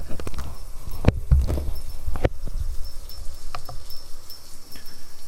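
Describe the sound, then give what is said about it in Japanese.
Handling noise from a recorder as its microphone is switched to unidirectional mode during a recording test: a few sharp knocks and clicks at uneven intervals over a low rumble, with no one speaking. “ちょっと一回今単一指向性に切り替えてみます。音声自体試したいので。ちょっと音入っちゃうけど。”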